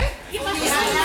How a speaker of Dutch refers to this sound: U hoort de drukte op de achtergrond, beste mensen. U hoort de drukte hier in de Drecht Amsterdam Zuidoost, Bimre.